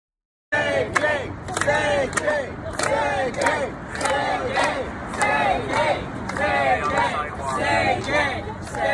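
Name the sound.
protest crowd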